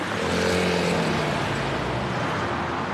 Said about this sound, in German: Also du kannst jetzt, gerade hörst du natürlich, dass der Verkehr jetzt vor uns fährt. Ne? Das heißt, es ist ziemlich sicher rot.